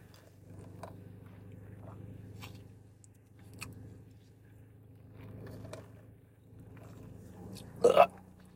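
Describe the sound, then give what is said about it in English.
A single short, loud slurping first sip of coffee with coconut milk near the end, with a steady low hum and a few faint clicks and rustles before it. “So I'm about to do a first sip for y'all.”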